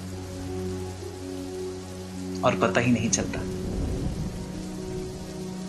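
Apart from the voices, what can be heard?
rain falling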